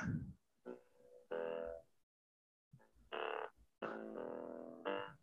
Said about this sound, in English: And here's some bass. Doesn't really sound too bassy. I think I hit the wrong I, button.